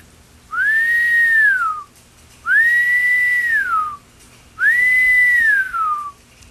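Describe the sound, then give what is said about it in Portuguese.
Three long, eerie whistled notes, each rising then gliding downward, evenly spaced, a person whistling in imitation of the Matinta Pereira, a mythical old witch who turns into a bird at night and whistles on people's roofs, with no talking. “De noite ela vira pássaro e fica assobiando no telhado das pessoas.”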